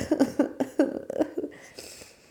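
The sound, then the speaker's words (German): A rapid burst of five or six loud coughs in quick rhythm, trailing off into a raspy, breathy exhale. “Kann ich mal laut husten.”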